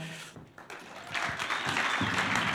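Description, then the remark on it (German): An audience breaks into applause and cheering as the leaders of a prayer ministry and a worship ministry are called forward for an interview, starting thinner and swelling into a dense, steady wash of clapping that continues loudly to the end. “Kommt führen und macht doch ein bisschen Lärm für sie.”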